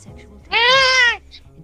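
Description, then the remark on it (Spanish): A cat lets out one loud, drawn-out meow lasting under a second, steady and bright in pitch with a slight waver, set against a quiet, faint background. “Hay un gato que quiere hablar.”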